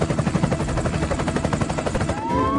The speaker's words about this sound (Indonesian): Kali ini terjadi kebakaran di hutan. Helikopter pun dikerahkan.